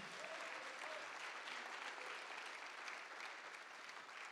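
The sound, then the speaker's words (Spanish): An audience applauding the Lord steadily, a dense wash of many hands clapping at once with no pauses, fairly loud and even from start to finish, with no voices standing out. “Si le va a dar un fuerte gloria a Dios y va a aplaudir, apláudele con todo al Señor, hermanos.”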